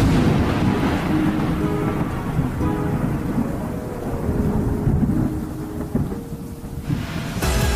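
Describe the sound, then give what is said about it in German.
A thunderstorm with deep, continuous rumbling thunder rolling throughout, steady rain hissing underneath, and a sharper crack near the end; loud, with no voices. “Anfang der 1900er Jahre war der Ort eine Versammlungsstätte, an der jährlich zu Himmelfahrt Kirmes gefeiert wurde, bis ein heftiger Sturm den Festplatz zerstörte.”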